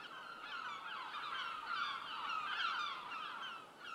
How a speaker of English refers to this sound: A nearby outcrop of rocks hosts a cacophony of seagulls